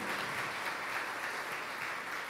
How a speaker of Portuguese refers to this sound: você pode dar uma salva de palmas para ele? Aleluia! Maravilha!